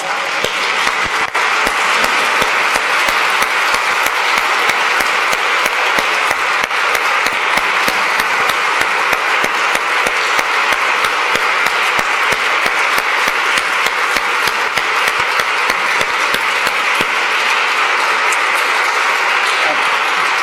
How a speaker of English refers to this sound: I want, I want you just please stand and give our priest and your bishop an applause. Thank you so much.